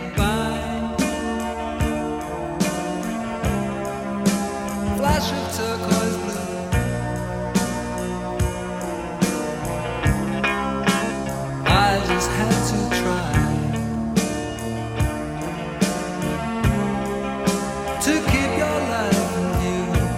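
An upbeat 1980s pop song plays loud and steady, with a regular beat and layered keyboard chords under a catchy melody running in the background, continuing without interruption and with no talking over it.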